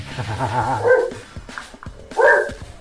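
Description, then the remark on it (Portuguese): A pet dog barks and yips in short bursts, with a couple of louder, higher-pitched barks separated by brief pauses, and a whiny, vocal quality between them. “Aqui, aqui tá o meu cachorro achando que vai ter auto-engano hoje.”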